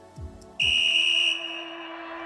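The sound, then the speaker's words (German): A referee's whistle blown for kickoff gives one long, shrill blast, sounding steadily for nearly a second before fading out, preceded by a couple of soft, low thuds. “Anpfiff.”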